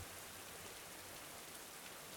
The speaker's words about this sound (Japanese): 先ほどより幾分弱くなったといえしっかりと降るその雨が麻戸の姿をかき消してしまった